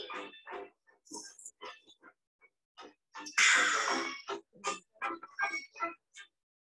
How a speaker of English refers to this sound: I cringe. I do a cringe syringe every time I have to hear that stupid slurping sounds. I do not like slurping sounds for people who do not.